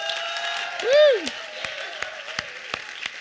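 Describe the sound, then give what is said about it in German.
An audience in Bern applauds to welcome singer Deborah Rosenkranz, in a steady, dense wash of clapping, with a rising-and-falling whoop from one voice near the start and a few sharper claps standing out. “So cool, dass du da bist, ganz herzlichen Applaus.”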